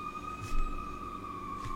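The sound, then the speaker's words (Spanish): An ambulance siren sounds, a steady high wailing tone that sags slightly in pitch as it goes by, with low background rumble and no voices. “Qué bueno, la ambulancia.”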